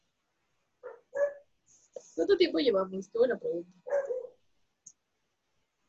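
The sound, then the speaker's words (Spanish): A pet dog barks a few times in short, sharp bursts while people talk over it. “Sí, sí, se escucha tu perrito.”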